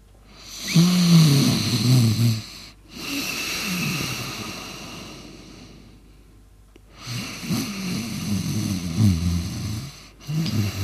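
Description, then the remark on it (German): A man snores loudly in his sleep, with long rasping inhales and breathy exhales repeating in a slow rhythm, with a short quiet pause between breaths. “wo er schon mal so schön schläft”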